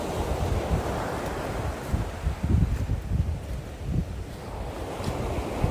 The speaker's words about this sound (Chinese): 啊，听到海的声音有没有好舒服？